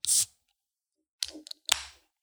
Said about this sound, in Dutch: trek het kleine blik open en schenk ons in